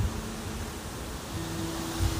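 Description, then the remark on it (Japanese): Steady, broad rushing noise of gusting wind shaking a large ginkgo tree, roaring and hissing across the whole range, with low rumbling buffets swelling near the end. A faint low hum runs underneath, and no one speaks. “うわ聞こえますよねちょうど嵐の時の風みたい”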